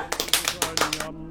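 A brief round of applause in a broadcast studio welcoming a guest: about eight sharp, uneven claps over a second, fairly loud, then it stops abruptly, leaving a low steady hum.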